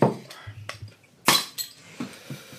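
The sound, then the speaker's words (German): Clatter of a bottle of Oberdorfer Helles, a Bavarian beer, being opened with a bottle opener: a few sharp metallic clicks, one bright snap of the cap, then light glass clinks trailing off. “Ah, ah, hier ist ein Aufmacher.”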